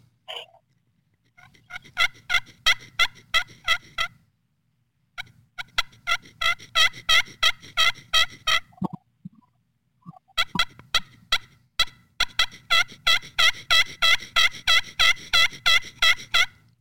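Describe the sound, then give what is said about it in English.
A turkey call imitates hen yelps in quick, rhythmic runs of sharp, raspy, grainy high-low notes, played loud and held close to the microphone on purpose, in several bursts with short pauses between them. “But we're producing that sound, but then you want to kind of clean it up so you have that high low out, high low out.”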